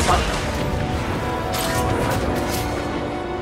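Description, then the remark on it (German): Sci-fi blaster cannons fire in a loud, dense barrage, with several sharp zapping bursts cutting through a continuous rumbling battle din that never lets up. “Also das sind die Blaster? Damit werden also die Kanonen abgefeuert.”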